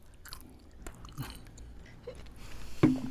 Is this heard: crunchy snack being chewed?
yes